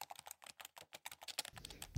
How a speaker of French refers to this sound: Les mots sont frais dans mon esprit, alors je tape frénétiquement sur mon clavier.